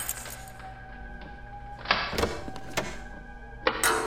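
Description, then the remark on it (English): Sharp metallic clicks and a clunk as a key turns in the lock of a props and costume storage door, followed by a heavier thunk of the door opening. A low steady hum sits underneath, and no one speaks. “What's behind this door? Props and costume storage. One of these keys should fit.”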